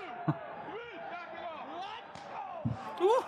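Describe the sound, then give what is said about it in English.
Two sharp, loud slaps, like a hand striking skin in a wrestling match, land about two seconds apart while people keep talking over them. “It's a tasty slap.”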